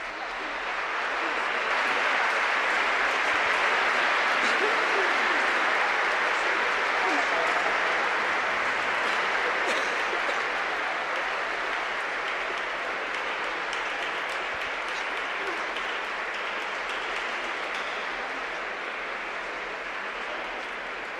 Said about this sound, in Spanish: y ahora pues va a recorrer estas naves de, de la catedral, principalmente para bendecirles, pero bueno, también es un momento de saludo y de agradecimiento y se recibe con este aplauso.